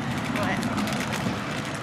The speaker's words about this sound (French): On traverse. Comme vous l'entendez, il y a plein de voitures.